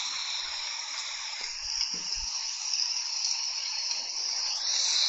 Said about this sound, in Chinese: 昨天下雨了，然后今天为大家播放一段雨声吧。昨天的那个雨声没有被录下来。